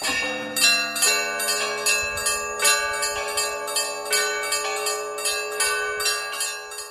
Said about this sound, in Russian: Каждый раз колокольный звон разный. Аки настоятель повелит. В принципе, звонов много, но есть батюшка перед звоном э, просится благословения, как обычно, или сказать, праздничное, или подольше.